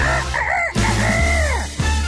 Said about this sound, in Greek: Λάλησε ο κόκορας παιδιά. Ξυπνήστε. Ή τέλο πάντων έκανε μία προσπάθεια και σήμερα.